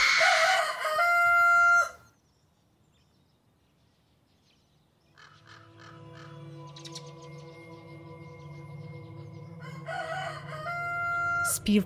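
A rooster crows loudly at the start, harmonics sharp and strained, then a pause before a second long crow rises gradually and swells to a strong finish.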